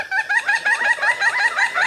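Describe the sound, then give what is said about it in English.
A pileated woodpecker gives a quick, steady run of nasal, chattering wuk-a notes, about eight in two seconds, fairly loud with no other sounds around it; this call is made when a pair meets up on the same tree trunk. “Similar to other woodpeckers, it also produces a whack a whack a call when the pair meets up on the same tree trunk.”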